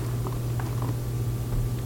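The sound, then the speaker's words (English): A cat purrs steadily, a continuous low rumbling hum that holds even throughout, with no voices or other sounds over it. “This fucking cat show up. This cat, that, we're gonna throw the cat outside right now.”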